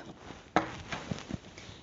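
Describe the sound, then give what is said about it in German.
A sharp snip of scissors cutting through Tesa adhesive tape, followed by a couple of softer clicks and rustles, over a faint background hiss. No one speaks. “Wir schneiden den Tesa ab.”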